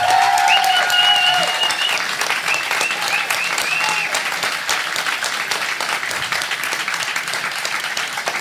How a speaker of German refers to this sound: Für dich auch ein Applaus.